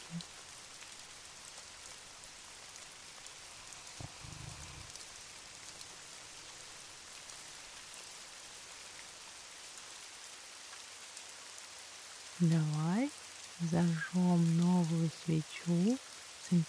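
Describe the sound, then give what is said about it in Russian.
Steady rain patters continuously, a soft, even hiss of drops falling on a surface. Near the end, a voice briefly speaks over the rain. “Это ровное дыхание и редкое причмокивание во сне на фоне дождевых капель расслабляют лучше любой музыки.”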